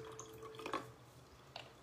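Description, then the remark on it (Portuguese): Water splashes briefly into a glass in two short, quiet pours, the second softer than the first, over a faint steady hum with no one speaking, as someone tops up their own glass with a little more water. “Separe o seu copo com água. Deixa eu até encher um pouquinho mais o meu.”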